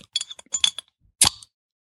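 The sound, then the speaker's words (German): Glasses clink together in a toast: a quick flurry of light, bright taps, then a pause and one louder, ringing clink. No one speaks. “so Prost, ne?”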